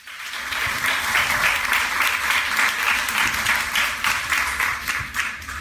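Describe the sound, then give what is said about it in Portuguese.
Steady, dense applause from an audience for Marielle Franco after her talk, many hands clapping at once in a continuous rushing wash that holds at an even, fairly loud level for several seconds with no voices standing out. “Marielle saiu dali aplaudida.”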